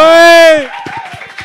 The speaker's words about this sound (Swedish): Ah, stor applåd!